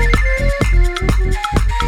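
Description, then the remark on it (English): A phone ringtone plays loudly: a bright electronic melody over a steady thumping beat, repeating in a quick rhythm with no one talking. “Just let it ring. Don't pick up the phone.”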